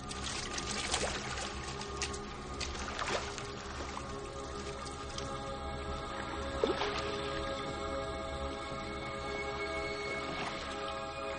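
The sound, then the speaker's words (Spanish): Hands splash and scoop through river water as blood is washed off them, with a few brief pours and trickles over steady flowing water; no one speaks. “Después se lavan las manos de sangre en el río”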